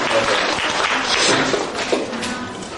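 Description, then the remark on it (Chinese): A burst of applause from a group, given to encourage a participant, many hands clapping in a dense, steady wash of crackling claps that holds at an even loudness throughout. “先给他掌声鼓励一下哈”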